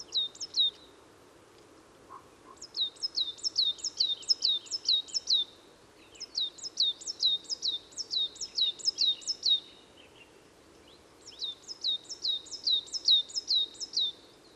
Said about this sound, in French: La mésange noire.